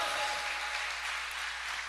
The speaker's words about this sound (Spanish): Pero denle un aplauso al Señor.